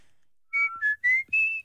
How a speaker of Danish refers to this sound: Jeg, jeg tror, det er nemmere for mig at fløjte lyst.